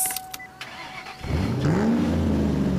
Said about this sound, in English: the sound of this engine music to my ears. I tell you.